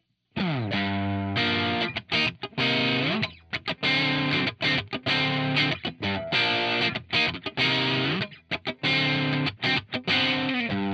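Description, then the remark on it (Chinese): Music with a boosted treble, sounding thin, bright and hissy, with airy, sharp upper tones; a steady, choppy melodic line plays throughout with no voices. “那我们来高频的部分”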